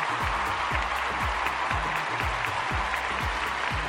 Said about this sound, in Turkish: Kocaman alkış ya. Kocaman alkış.